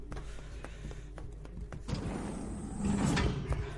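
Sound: door opening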